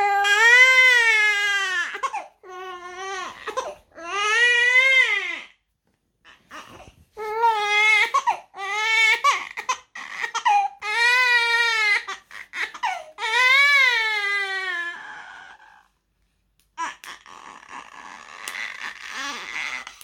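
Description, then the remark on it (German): Baby girls crying in repeated high, wavering wails with short breaths between them, loud and insistent, rising and falling in pitch over about twenty seconds, no talking. “mein Beschützerinstinkt, der entdeckt neue Dimensionen jedes Mal, wenn ich meine Girls weinen höre”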